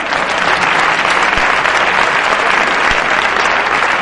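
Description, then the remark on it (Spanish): Sustained applause from a crowd for the boyfriends of Spain, a dense, steady wash of clapping that stays loud and even for about four seconds with no voices standing out. “Un aplauso para los novios de España.”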